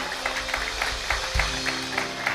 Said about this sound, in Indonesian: Tepuk tangan bagi Tuhan